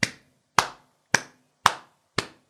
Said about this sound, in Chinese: 当一曲奏完，身后响起了啪啪的鼓掌声。